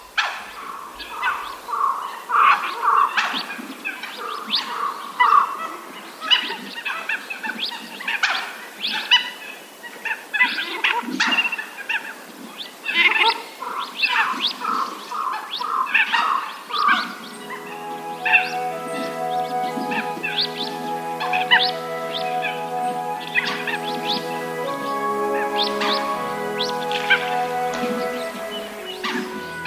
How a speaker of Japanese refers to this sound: 今朝は鹿児島県出水市の甲川ダムからおしどりの声をお届けしました